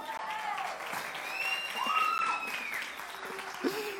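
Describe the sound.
An audience claps steadily for several seconds, a dense, even wash of applause, with a few high, sliding whistle-like tones and faint voices mixed in.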